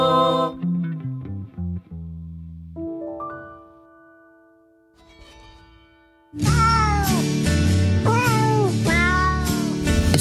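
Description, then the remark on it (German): A few loud, drawn-out cat meows ring out over a dense, processed-sounding musical backing, following a quieter melodic opening with sustained tones. “gibt ja doch einige Katzenliebhaber.”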